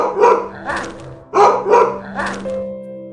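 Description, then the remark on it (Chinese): A dog, Henry, lets out low, rough growls, stirred by the sound of a garage door opening as a car pulls up at the house gate. The growls come in short bursts, about five of them in uneven pairs, loud and with no one talking, over a faint steady low hum. “车库门启动的声音激发了亨利的斗志，继而发出低沉的怒吼。”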